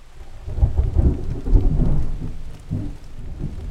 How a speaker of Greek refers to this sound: Ήταν ένα βροχερό πρωινό.